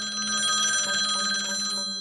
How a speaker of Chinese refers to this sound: 四天之后，李亨浩家里的电话再度响起。